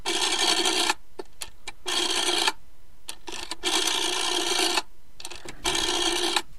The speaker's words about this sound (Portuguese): Malvina, irritada, já desgastada, vai até o telefone e disca.